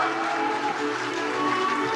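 A crowd applauds steadily to send off a teacher, a dense, even wash of clapping that holds at a fairly loud level for the whole couple of seconds, with no voices standing out.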